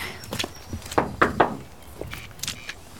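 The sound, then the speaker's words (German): A handful of hollow knocks on the wooden door of a bird-protection association's observation hut, a quick cluster of three raps in the middle with a few softer thuds before and after, and no talking. “So, mal klopfen.”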